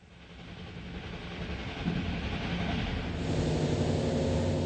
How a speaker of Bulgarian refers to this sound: Влакът минава през гъсто населената Рурска област.